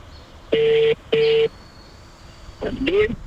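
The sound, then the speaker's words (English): A phone call's ringback tone sounds twice in quick succession, a steady electronic double ring heard over a speakerphone, followed by a brief voice as someone picks up. “It's ringing.”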